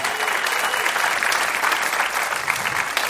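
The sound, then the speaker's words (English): A live show audience claps for themselves for coming to a new event, steadily for about three seconds, a dense, even patter of many hands with no pauses or spoken words. “Clap for yourselves for coming to a new thing.”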